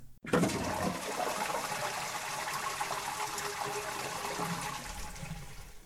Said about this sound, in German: Also in einem, in einem guten Radio, nee, Quatsch, in so einem äh, in so einer Morning-Radio-Show würde man jetzt so eine Klospülung abspülen. Weil ja, vielleicht kommt die genau jetzt.